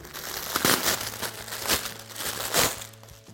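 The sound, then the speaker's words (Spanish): Plastic packaging of a microfiber cloth, just opened, crinkles and crackles in irregular bursts, bright and rustling, with several louder crunches as the wrapper is handled; no one speaks, and a faint low hum sits underneath. “Y con el limpiador Glass Cleaner y con esta con este paño de microfibra.”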